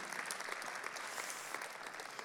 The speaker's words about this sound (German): Jetzt kannst du dir selber einen Applaus geben.